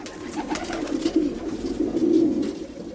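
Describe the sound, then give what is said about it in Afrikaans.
A ringed white dove coos steadily in low, throaty murmurs, rolling continuously, with no voices and only faint background hiss. “Nou ja, een ding is verseker, 'n wit duif raak nie sommer 'n bluebaar nie.”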